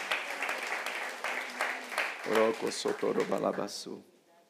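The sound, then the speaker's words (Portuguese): An audience applauds the Lord in a dense, steady wash of clapping, joined midway by loud voices calling out over the claps before everything drops off abruptly near the end. “Diga amém e dê um aplauso ao Senhor.”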